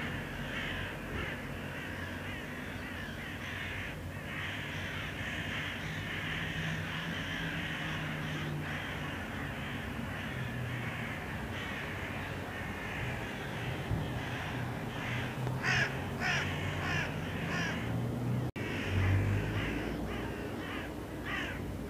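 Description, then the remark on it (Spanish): A flock of crows caws loudly and continuously on a sunny, cold day, many harsh overlapping calls, with a dense, busy chorus that grows more agitated near the end; no one speaks. “Y todos estos cuervos, ni idea qué les pasa, pero se vuelven locos.”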